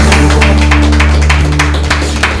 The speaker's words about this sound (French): Bah, je pense qu'on peut t'applaudir et te féliciter. Bravo